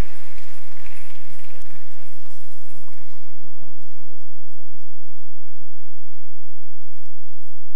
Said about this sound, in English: Keep clapping, keep clapping until it gets here. Just keep clapping, keep appreciating God.